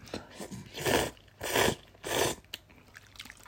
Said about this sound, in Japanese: 豚骨ラーメンですね。よくある。で、トッピングにあれですね。例の。つぶしですね。まあ、かつぶし入れる前にちょっとじゃあ食べてみますね。あの、咀嚼音します